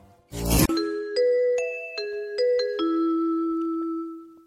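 A brief burst of noise gives way to a train station announcement chime: about six clear, ringing tones stepping through a short melody, each note sustaining and overlapping as it fades, with no voices, introducing a train delay announcement.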